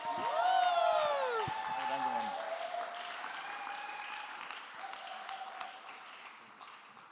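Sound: audience applause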